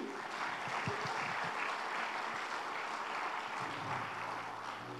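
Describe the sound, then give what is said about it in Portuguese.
An audience bursts into sustained applause for the Lord Jesus, a dense, steady wash of many hands clapping at an even loudness for the full five seconds, with no speech over it. “Aplaudo o Senhor Jesus por isso.”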